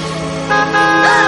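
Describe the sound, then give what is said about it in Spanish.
A woman rides a motorcycle at full speed through traffic, its engine a steady droning whine that grows louder halfway through, with horn-like tones rising and bending near the end. “conduce su moto a toda velocidad.”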